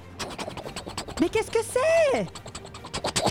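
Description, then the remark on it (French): A voice makes a rapid, steady chopping sound imitating a helicopter's rotor, continuing fairly loud while a short spoken exclamation breaks in partway through. “Mais c'est un hélicoptère Hélicoptère Hélicoptère”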